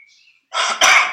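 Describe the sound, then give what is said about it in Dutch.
A single loud sneeze: a breathy, rising intake followed by a sharp explosive burst, heard on its own with no talking. “Gezondheid.”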